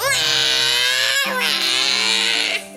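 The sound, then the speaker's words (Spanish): Loud crying from many small babies in a room, a continuous high wailing that rises and falls in two long bursts with a brief catch in between, then cuts off abruptly. “Llegó una señora, cogió al bebé y se le llevó a una sala donde había muchísimos bebés pequeñitos, pequeñitos, pequeñitos y estaban todos Llorando.”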